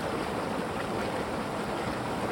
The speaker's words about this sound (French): Une vieille légende raconte, s'il vous plaît, monsieur le comte, qu'un aventurier assis sur une pierre pourrait entendre chanter la rivière.